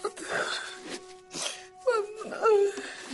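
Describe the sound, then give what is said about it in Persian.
A man crying in drawn-out, wavering wails and whimpers, his voice sliding up and down in pitch across several uneven sobbing bursts, fairly loud, with short breathy pauses between. “بابا گریه نکن”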